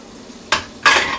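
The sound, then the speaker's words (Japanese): Two short bursts of clattering dishware, like plates and utensils knocking together in a sink as someone washes the dishes, with quiet gaps between and no voices. “洗い物してます”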